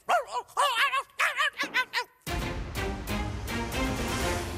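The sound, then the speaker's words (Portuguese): A pet dog yaps several times in quick succession, sharp and high, for about two seconds before loud, dense music cuts in and fills the rest. “É o meu cão. Não, não, não é, não é chulo. Morde, morde os chicanos, morde.”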